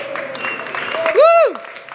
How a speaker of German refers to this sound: Die Israeliten klatschen für euch. Die freuen sich, dass sie nicht mehr alleine sind.